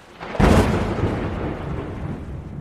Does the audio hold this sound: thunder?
yes